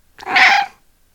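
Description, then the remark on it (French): A single short, soft meow from a small cat at a window, clear, rising and fading within about half a second, with silence around it. “Petit chat se montra à la fenêtre et miaula doucement.”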